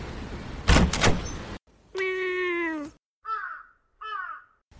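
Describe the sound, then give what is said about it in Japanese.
A door slides or rattles open with a rough, noisy scrape, followed by a long drawn-out creaking tone and two short, harsh cries like crow caws. No one speaks. “さあ着きました私が扉をお開けしましょう”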